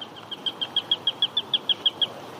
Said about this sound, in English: We noticed that the female cuckoo's call is similar to a sparrowhawk call.